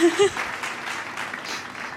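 A burst of applause sound effect: dense, crackling clapping from a crowd that holds steady for about two seconds, with a brief tonal blip at the start.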